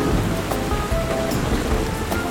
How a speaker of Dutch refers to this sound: Of het nou regent